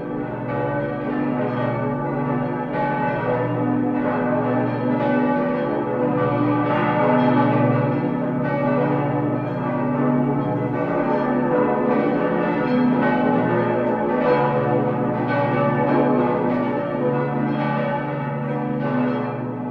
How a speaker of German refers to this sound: Die drei größeren Glocken sind an sich die neueren, 16. 17. Jahrhundert. Und diese drei großen Glocken werden noch begleitet von sieben Glocken, die oben hängen im zweiten Teil des Glockenstuhles.